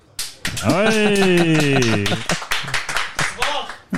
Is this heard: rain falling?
no